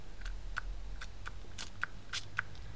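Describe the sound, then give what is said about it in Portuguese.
A nasal allergy spray bottle pumped repeatedly, about eight short, crisp hissing spurts with clicky edges, irregularly spaced over a few seconds against a low, steady background hum. No one speaks. “Eu tenho um spray para as alergias”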